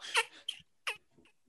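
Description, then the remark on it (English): A person's voice imitates a dolphin with a quick run of shrill, squeaky squeals, three main bursts and a few fainter chirps, with no talking. “it's much better than my dolphin impression and yes i will try to do it for you now okay here we go”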